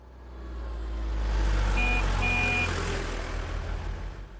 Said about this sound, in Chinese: 不管是汽车呼啸而过，还是自行车发出叮铃铃的声音，他们都会慌乱的挤在一起，匆匆的从马路上下来。